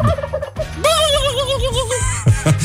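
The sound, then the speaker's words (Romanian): A person imitates a turkey gobble with a loud, warbling, quavering call that wobbles up and down for a couple of seconds, ending in a few short guttural bursts. “Da, Știi să faci ca un curcan?”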